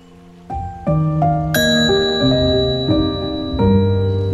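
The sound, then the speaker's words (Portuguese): A series of bright bell tones struck one after another, each ringing out with long sustained overtones that overlap and linger, clear with no voices. “Ao escutar o sino, feche os olhos com gentileza.”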